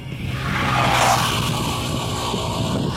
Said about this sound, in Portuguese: Olha a moto passando.